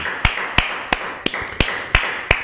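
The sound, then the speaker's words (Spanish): Sharp, evenly spaced claps, about eight of them in a steady rhythm, fairly loud, with no voices in between, given as applause to the Almighty. “Fuerte aplauso al Todopoderoso.”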